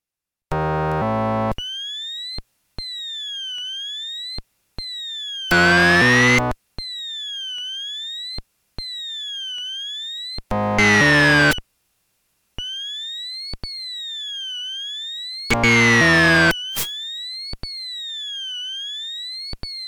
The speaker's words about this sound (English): We will hear two versions. The second has a shorter portion deleted than the first does, so that the remaining parts of the glides reach a higher frequency than in the first example. The demonstration is presented twice.